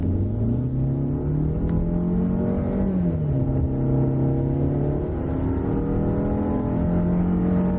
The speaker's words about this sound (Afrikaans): Die 121 kW 1.6 turbo petrol lewer selfs volgelaai voldoende krag. Kar het nou na 100 in 10,2 sekondes afgelê, maar belangriker vir alledaagse ryery is dat 240 Nm wrinkrag vanaf laag in die toeristrek beskikbaar is.